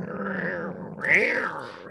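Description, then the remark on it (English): A person's voice imitates cats growling at each other: a continuous guttural rumble lasting about two seconds, swelling louder and higher partway through before settling back down. “they're like yeah growling at each other but yeah, they only meow at humans.”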